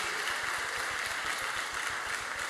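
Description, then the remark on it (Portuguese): An audience in a church claps steadily for the media team after a teaser video, a dense wash of many hands at an even, fairly loud level for the whole stretch, with no voices standing out. “Uma salva de palmas para toda a mídia que preparou esse teaser maravilhoso.”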